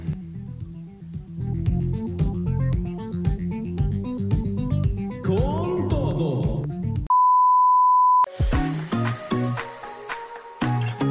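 An electronic music track plays loudly with a pulsing synth bass line and layered melodic tones, briefly interrupted by a steady high-pitched beep before the music returns, with no voices.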